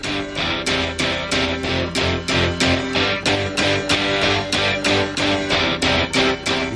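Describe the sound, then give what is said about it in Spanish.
A new full-band pop rock track plays loud, with a steady driving drum beat, strummed guitars and bright cymbal hits repeating in a regular rhythm throughout. “pues … ha sacado nuevo trabajo al mercado que suena así de bien”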